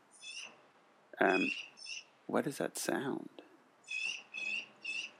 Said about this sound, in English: Is it like a cheap, cheap, yeah. Yeah. Oh yeah, that's a bird outside my window. Oh, so yeah. that was that's my version of your dog barking.